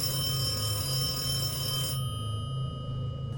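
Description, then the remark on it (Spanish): An old home landline telephone bell rings in the early hours of the morning with a loud, continuous metallic jangle for about two seconds, then cuts off abruptly, leaving a low steady hum. “En la madrugada sonó el teléfono, un viejo teléfono de casa que mi mamá se rehúsa a tirar aunque nunca lo usamos como ya nadie los usa.”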